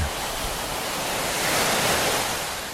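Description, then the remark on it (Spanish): Mediterranean Sea waves wash steadily onto the shore, a broad hissing surf that swells slightly louder midway before easing off, with no voices. “Por primera vez en la vida voy a tocar el mar Mediterráneo.”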